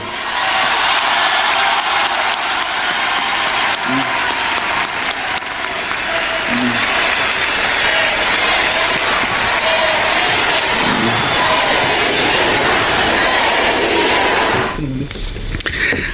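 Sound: crowd cheering and chanting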